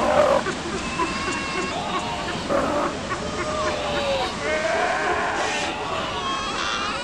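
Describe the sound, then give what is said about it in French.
A dense colony of sea lions calling all at once as mothers and pups try to find each other, overlapping bleating and barking cries rising and falling continuously, loud, forming a constant noisy chorus. “Chaque cri est propre à chaque individu.”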